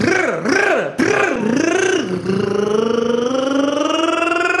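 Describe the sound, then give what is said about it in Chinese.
A voice imitates a motorcycle engine, first with several wavering revs, then a long, steady buzzing drone that slowly climbs in pitch. The imitation is loud and continuous, with no other talk. “我一见面，他们就跑过来，然后拧着我的耳朵就说：“来，给我模仿个摩托车，是吧？”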